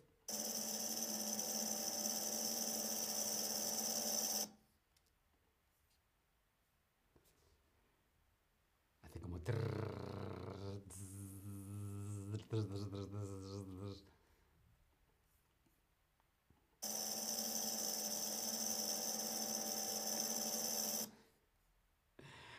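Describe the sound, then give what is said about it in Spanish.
A loud, steady snake hiss runs for about four seconds, then a voice is heard briefly, and a second long hiss follows before fading out. “Era el sonido de una serpiente.”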